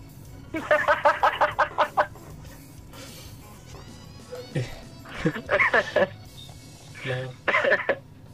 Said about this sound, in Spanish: Ah, te desperté con el gallo, weón.